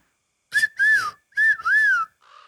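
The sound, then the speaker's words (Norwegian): A person whistles a bird call: two pairs of rising-and-falling warbled notes, clear, then a short softer whistle trailing off at the end. “Hvis dere vil komme inn og ikke gå inn hovedinngangen, så bare gå til østtårnet, og så um, klarer du å lage fuglelyder.”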